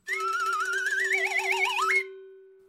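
Sonified signals from the Big Bang and the universe's first roughly 800,000 years, captured with special equipment and translated into sound: eerie electronic tones that waver and climb slowly over a steady low drone, sweeping upward near the end before a lingering hum fades out.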